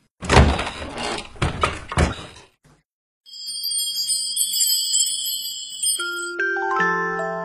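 Several loud, heavy knocks on a door in quick succession, then a short pause before a bright, tinkling chime melody rings out and sustains to the end.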